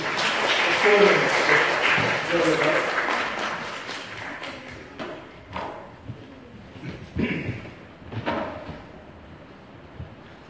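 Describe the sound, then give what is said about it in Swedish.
A small group applauds, the clapping strongest in the first few seconds and then thinning into scattered claps and murmuring voices. “Jag tycker jag får en liten applåd.”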